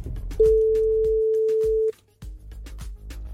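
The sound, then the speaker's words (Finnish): A single telephone ringback tone sounds once as the Radio Energy morning show phones its first guest. It is a loud steady hum lasting about a second and a half, over faint clicks and low background noise, before a brief silence. “Pitäisikö meidän ruveta pirauttelemaan”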